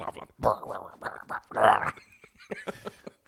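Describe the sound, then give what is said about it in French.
A person's voice imitates a frustrated French bulldog's whiny, grumbling whimpers in a string of short, strained bursts, loudest near the middle, alone with no other talk. “Parce qu'il fait du bruit puis il se fâche, hein, parce qu'il n'est pas capable.”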